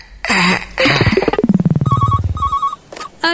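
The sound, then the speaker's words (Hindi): A telephone rings in two short electronic trills, fairly loud, after a couple of noisy bursts and a rapidly pulsing tone that slides downward in pitch. “lovely city parlour अरे phone जल्दी उठाओ अब मेरे पास अरे वक्त बहुत कम है”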